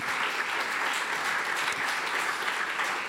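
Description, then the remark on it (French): An audience applauds steadily for about three seconds, a dense, even wash of many hands clapping with no pauses or voices breaking through, applauding a witness's courageous insider testimony. “Merci de l'applaudir pour ce témoignage courageux d'insider, plein de leadership.”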